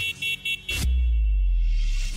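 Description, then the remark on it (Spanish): A car horn honks three times in quick, short bursts, followed by a sharp noise and a loud, low rumble like a passing engine. No one speaks. “El claxon en auto es solo para una emergencia, no para faltar al respeto a los demás.”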